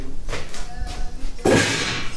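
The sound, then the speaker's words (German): A window in an apartment is pulled shut with a sharp thump near the end, preceded by a few softer scraping and rattling movements of the frame. “Ich werde aber doch noch ein, zwei Fenster hier zumachen.”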